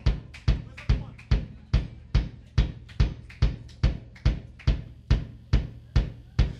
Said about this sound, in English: All we need is a kick drum for this one.